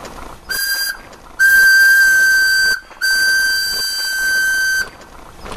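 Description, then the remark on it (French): A steam car boiler being purged after the car is stopped for good, with only 3 bar of pressure left, letting off a loud, steady high whistle in three bursts: a short one, then two long ones separated by a brief gap, with no talking. “Allez, on arrête définitivement et on purge, bien sûr.”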